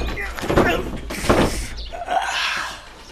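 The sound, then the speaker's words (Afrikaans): Several heavy, booming thuds strike the door of an old house one after another at uneven intervals, forceful, with strained grunting voices between the blows, as someone tries to break the door down. “Ek dink dit het tyd geword dat ek die deur afbreek.”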